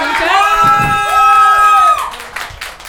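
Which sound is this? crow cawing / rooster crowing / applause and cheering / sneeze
applause and cheering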